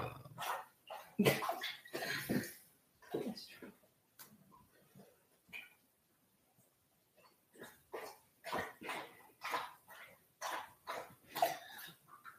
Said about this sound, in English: Yeah, and he's really loud. That's Destro. That's the Husky.